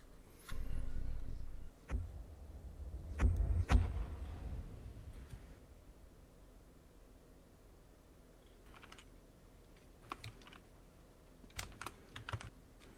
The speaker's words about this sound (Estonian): tal on klaviatuur vist selle otse selle mikrofoni juures